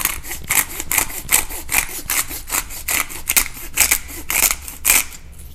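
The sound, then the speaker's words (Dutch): A pepper mill grinds ordinary pepper in a steady run of about a dozen short, gritty crunching strokes, fairly loud, with almost nothing coming out of the mill and no talking over it. “Niet schrikken dat ik te veel doe, want er kwam, bijna niks uit die molen vandaag. Heel veel geluid, maar niks.”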